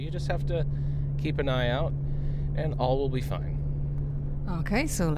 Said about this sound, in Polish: Teraz jesteśmy w samochodzie, jedziemy na naszą ekscytującą wycieczkę.